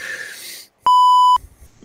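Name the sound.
censorship bleep tone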